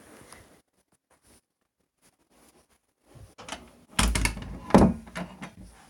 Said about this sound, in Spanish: Es que no cierra bien mi puerta, jaja.